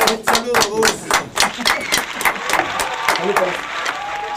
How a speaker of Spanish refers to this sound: Un aplauso para ellos.